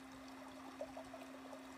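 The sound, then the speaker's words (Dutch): Faint, steady trickling of a stream at the entrance of a natural water park, a soft continuous wash of flowing water with a few small gurgles, with no voices. “Als je goed luistert, kan je het water ook al horen.”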